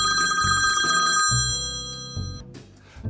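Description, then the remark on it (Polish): A telephone rings with steady, bright high-pitched tones held throughout, over lower pulsing notes that shift in a rhythmic pattern, fading slightly toward the end. No one speaks. “Tak, i chciałam jeszcze powiedzieć, że y, chyba ktoś do nas dzwoni”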